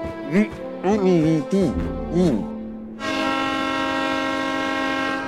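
A train horn sounds a loud, steady, sustained blast for the last couple of seconds, following a few short, wordless gliding vocal sounds, as Manny and Meche board the train with the coral miners.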